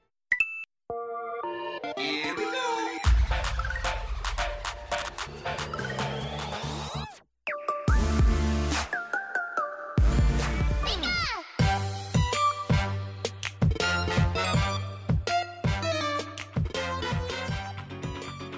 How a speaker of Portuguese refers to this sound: Roda a vinheta.